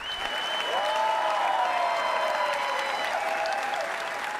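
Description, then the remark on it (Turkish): Sustained applause from a large audience after the world premiere screening of Nuri Bilge Ceylan's film Kuru Otlar Üstüne at the Cannes Film Festival fills the whole clip, a steady dense wash of clapping with faint tonal whistles or cheers rising above it. “Gösterimin ardından büyük bir coşku yaşandı salonda.”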